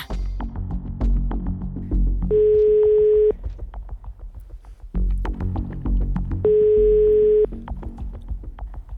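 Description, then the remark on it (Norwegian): A steady telephone ringback tone of an outgoing call from NRK P3 to a person in Dalarna sounds twice, each about a second long and several seconds apart, over a busy musical background with a low, pulsing rhythm. “som ringer fra NRK P3.”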